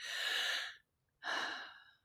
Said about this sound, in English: So, I am reveling in taking deep breaths today and having access to fresh air today. It is a very, very sacred thing.